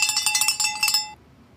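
A small handbell rings rapidly and brightly for about a second, a quick rattling series of metallic clangs with shimmering overtones, then stops abruptly into near silence. It is rung to celebrate a half marathon personal record at the Cambridge Half.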